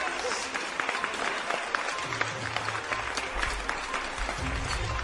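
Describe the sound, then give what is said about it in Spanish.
A crowd applauds a presenter steadily, dense overlapping claps filling the whole stretch at moderate volume, with faint low murmurs and a few cheers underneath. “Un aplauso para el hermoso presentador que levanta pasiones, envidias y contradicciones.”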